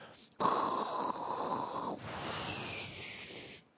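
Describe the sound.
A voice imitates a burning flame with one sustained, breathy roar and hiss, fairly loud, lasting about three seconds with a brief shift midway before fading out.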